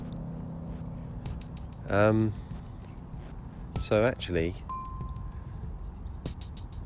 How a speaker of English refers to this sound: I'm standing in the car park and I can't see the other end of the park or even the sides of the park, the trees. But it's nice how you do actually see some trees in the midst of the fog.